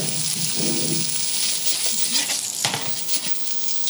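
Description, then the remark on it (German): Food sizzles loudly and steadily in a hot frying pan as a professional chef tosses it, with scraping, stirring and shuffling sounds. “Wow, wenn ein Profi Profikoch die Pfanne schwenkt.”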